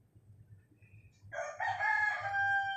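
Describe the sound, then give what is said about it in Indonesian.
A rooster crows once in a long, drawn-out cock-a-doodle-doo, moderately loud and slightly distant, over a low steady background hum. “udah tahu gue di ujung sono nih. Di ujung sono nih, nyaut lagi loh.”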